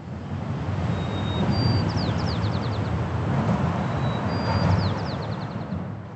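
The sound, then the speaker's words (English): Steady, heavy traffic roar on the Golden Gate Bridge fills the background while a sparrow sings two similar phrases, each a thin whistle followed by quick trills, high-pitched and partly masked by the noise. “the Golden Gate Bridge is bustling with activity and plenty of noise from traffic and tourists and wind”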